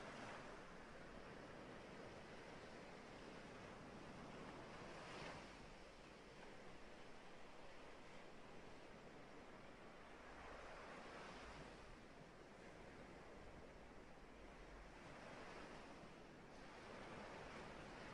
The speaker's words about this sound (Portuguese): Ouça as ondas que vêm e que vão.